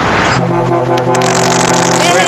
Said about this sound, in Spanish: Suena, le suena, le suena la bocina del camión.